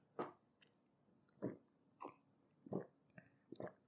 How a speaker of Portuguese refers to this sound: Dá pra ouvir engolindo, né? Caralho. Eu não sei, meu, eu, me, eu me ouço mastigando pra caralho. Quando eu mastigo faz muito barulho. Quando eu engulo, dá pra ouvir.